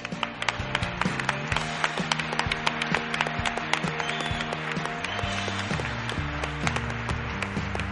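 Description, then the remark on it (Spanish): An audience applauding at the Teatro Galileo during a radio program: a dense, steady wash of many hands clapping for several seconds at an even loudness, with low sustained tones shifting beneath it. “Este aplauso va por vosotros.”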